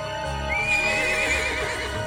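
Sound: horse neighing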